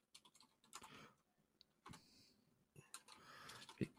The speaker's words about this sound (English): Type, type, type, type, type. He's looking it up. you can't you can't hear anything. Don't worry about it. you can't hear my keyboard. Oh, my headphones can hear your keyboard.